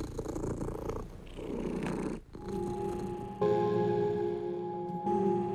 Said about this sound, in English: And the cat would just, you know, be purring and and relaxing, and I would be just sort of in a hypnotic state, just kind of brushing and brushing.